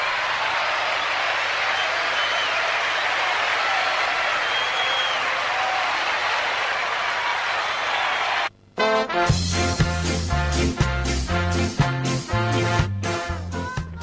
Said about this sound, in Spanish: Un aplauso para él. Gracias.